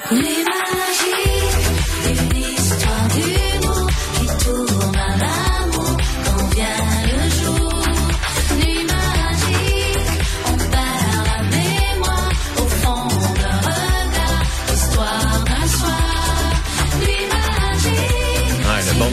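A steady, loud electropop cover of a 1986 pop song plays throughout, with a driving beat, deep bass and layered synth melodies carrying a retro pop tune, with no talking over it.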